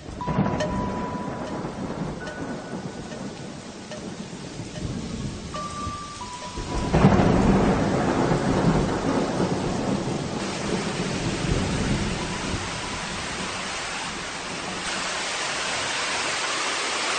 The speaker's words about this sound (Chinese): 啊，我们现在呢是冒着这个微微的小雨，呃，攀登这个观音山，然后呢听着这样一个灿烂的这种流水啊。